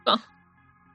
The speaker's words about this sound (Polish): Na zdrowie.